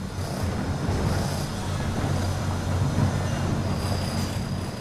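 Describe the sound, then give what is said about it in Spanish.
Steady noise of construction works building six levels of underground parking in a 24-metre-deep pit: a continuous, fairly loud mechanical rumble with a deep droning hum and a broad clattering wash on top, holding constant throughout with no voices. “a las 7 y media de la mañana empiezan los ruidos de las obras y no paran hasta las 6 de la tarde”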